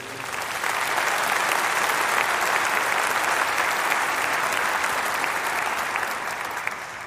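Sustained applause from a large crowd at a church worship service, a dense steady clatter of many hands clapping that swells in quickly and holds evenly for several seconds before easing off slightly at the end.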